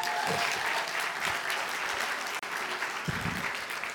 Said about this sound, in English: We got two. Good. Y'all clap it up for our two volunteers.